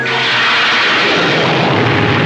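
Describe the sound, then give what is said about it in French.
A loud explosion roars through the whole moment as a dense, sustained rumbling blast with no pause or clear onset, and no voices. “Il y a alors une explosion.”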